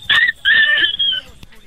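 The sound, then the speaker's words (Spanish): A child's high-pitched voice imitates a dog barking, giving two quick yappy barks, the second drawn out, fairly loud. “A ver, hazle como perrito.”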